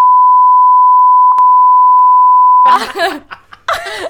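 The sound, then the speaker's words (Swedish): A steady, loud censor bleep over a name holds for nearly three seconds on one flat pitch, then cuts off abruptly as people burst into laughter and chatter. “Du kan pipa.”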